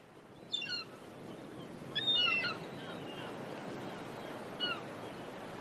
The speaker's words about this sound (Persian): گوش کنید فریاد مرغای دریایی رو میشنوید انگار ما رو به کاری فرا میخونن اینها همون مرغایی هستند که اون روز تو اقیانوس منو صدا می زدن.